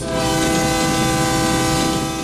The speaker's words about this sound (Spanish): Trenes